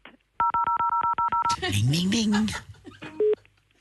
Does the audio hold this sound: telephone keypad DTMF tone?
yes